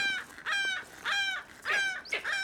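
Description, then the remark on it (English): A striated caracara named Loco, from the Falkland Islands, calls loudly with four harsh, nasal squawks in quick succession, each a raspy, crow-like cry separated by brief pauses, with no talking. “This is a striated caracara from the Falkland Islands.”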